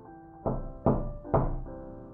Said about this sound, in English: It was the first Christmas in my new office, and I was putting the finishing touches on my holiday decorations when there was a knock on my door.